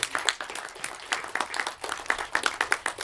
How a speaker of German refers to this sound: Das ist ein Applaus, finde ich.